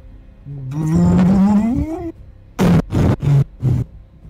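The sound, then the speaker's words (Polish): A voice imitates huge pipes bursting high overhead: a rising, groaning strain builds for over a second, then four sharp, loud, forceful bursts follow in quick succession. “Wysoko ponad wami te potężne rury, które biegły, eksplodują, zalewając po prostu bryzgami migotu wszystko dookoła.”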